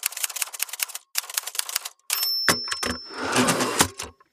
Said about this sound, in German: Natürlich, ja, jetzt müssen wir einen Jingle dafür machen, super. Einfach so eine Schreibmaschine, tick, tick, tick, tick, tick.